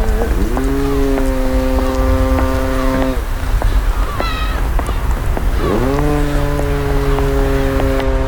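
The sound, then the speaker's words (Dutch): A foghorn on a buoy at sea sounds twice in fog, each a long, loud, steady blast of about three seconds with a rising start, separated by a pause, over constant wind and water noise. “Ja, dus de, ja, de, de zee, misthorens, uh, eh, meeuwen.”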